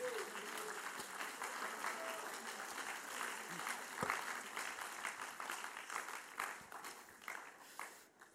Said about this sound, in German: Die Leute geben noch Applaus.